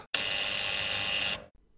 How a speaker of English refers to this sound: You hear that? That's the barbarism buzzer. Believe me, you'll be hearing a lot more of that one too.